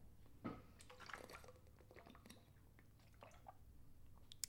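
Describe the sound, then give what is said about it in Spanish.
Someone drinks water noisily, with wet slurping, gulping and small mouth clicks over a few seconds, and no talking. “¿Soy la persona que más ruido hace bebiendo agua?”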